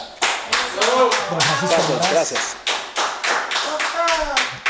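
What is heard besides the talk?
audience applause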